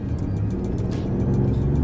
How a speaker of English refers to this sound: But if you listen carefully, you notice how there's a bit of a hiss of the electric motor and yeah, the whir is. of the turbo and the thrum of the engine all kind of blending kind together at the same time, isn't mm. it?